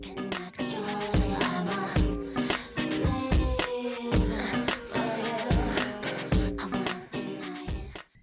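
A pop song plays loudly and continuously, driven by punchy, regular drum hits and layered synths with steady harmonic tones throughout.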